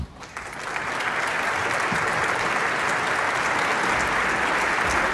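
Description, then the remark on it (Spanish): Sustained applause from a large audience at the Teatro Colón during the Piazzolla 100 años festival, for saxophonist Yamile Burich: a dense, steady wash of many hands clapping that swells in the first second and then holds at an even level with no voices. “Aplausos para Yamile Burich, gran saxofonista que nos visitara tantas veces en el programa.”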